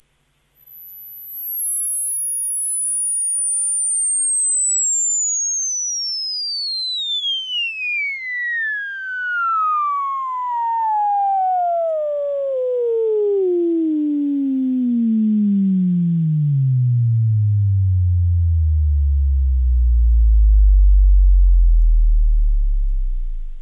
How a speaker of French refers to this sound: Bah, là, ce qu'on vient d'entendre, c'est un, un, un, son qui va glisser sur l'ensemble des fréquences que, que l'être humain peut entendre.